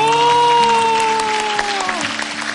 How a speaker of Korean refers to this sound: 박수 더 크게 한번.